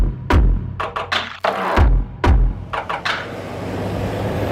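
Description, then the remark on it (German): Busy road traffic with many cars at a large roundabout on the way to France: a steady engine and road rumble, punctuated by a series of sharp thuds and whooshes at irregular intervals, with no talking. “Ui, wir sind jetzt in einem riesen Kreiselverkehr. Ah, hier sind voll viele Autos.”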